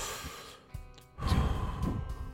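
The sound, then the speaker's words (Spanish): A voice imitates the slow, rhythmic breathing of an alternating-pressure air mattress, which shifts pressure points to prevent bedsores in long-bedridden patients: soft puffs at first, then a longer, louder airy whoosh and exhale, with no speech. “Vamos, que son colchones que van cambiando los puntos de presión por el tema de llagas y de gente que está mucho tiempo en, cama.”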